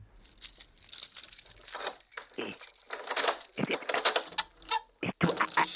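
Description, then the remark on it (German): Keys jangle and rattle in repeated metallic bursts as someone unlocks a door, with a few sharper clinks near the end and no talking. “Und jetzt bin ich irgend so eine Treppe wieder raufgestolpert und dann habe ich wieder wo aufgesperrt”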